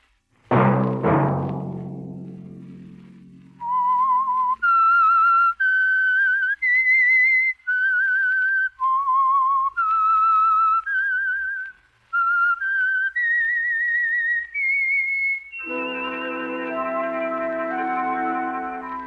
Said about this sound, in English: let that whistle be your signal for the Signal Oil program, The Whistler, each Sunday night at this same time.